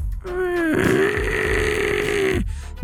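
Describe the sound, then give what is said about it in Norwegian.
A voice imitates a creaky, strained baby cry, as heard over a baby monitor: one long wavering wail with a rough, crackling edge, held for about two seconds before it cuts off, fairly loud. “Jeg var bare sånn, altså vanlig babygråt? Ja, altså bare sånn knirkebabygråt.”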